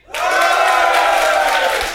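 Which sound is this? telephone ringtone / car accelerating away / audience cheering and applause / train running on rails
audience cheering and applause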